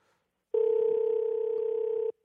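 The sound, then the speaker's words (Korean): A telephone dial tone as the show places an outgoing call to a caller who is slow to connect: a single steady, loud tone lasting about a second and a half, then cutting off abruptly, with no talking over it. “자, 전화 연결이 좀 잘안 되는 예, 예, 걸고 있습니다.”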